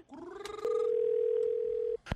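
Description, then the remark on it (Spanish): A steady electronic telephone ringback tone hums for just over a second at moderate loudness as a call is placed back to a woman, preceded by a brief rising buzz and cut off by a sharp click at the end. “Entonces la llamé a yo a ella para atrás, como que me estaba jodiendo en mi casa y esto fue lo que salió.”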